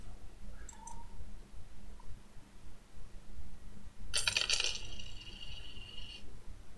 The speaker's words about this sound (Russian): Слышу звон монет.